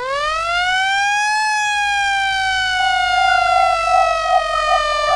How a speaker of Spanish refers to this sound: ¡Suena las sirenas!